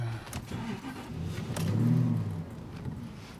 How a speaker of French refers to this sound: laisser chauffer la bécane. Moteur V8, c'est un vieux Spitfire.